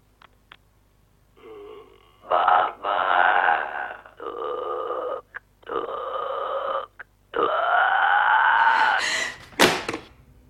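A monstrous guttural croaking voice of the Babadook, from the film The Babadook, calling over a phone line, several drawn-out rasping bursts with pauses between, ending in a sharp, higher-pitched rattling croak.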